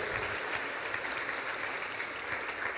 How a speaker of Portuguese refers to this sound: Você pode dar um aplauso para a palavra do Senhor?